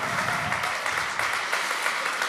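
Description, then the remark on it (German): Steady audience applause at ICF Hamburg church, a dense wash of many hands clapping at an even, sustained level throughout, with no voices standing out above it. “Danke für den Applaus.”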